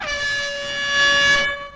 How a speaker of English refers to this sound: That's not my horn. This is my horn. Let's do it.